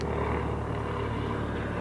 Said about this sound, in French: Ah, on a un hélicoptère qui passe.